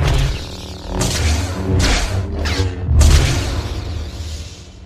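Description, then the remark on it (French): A lightsaber sound effect: a steady low electric hum broken by four loud, crackling bursts of swinging and clashing blades, the last one strongest, with no voices. “le son emblématique du sabre laser”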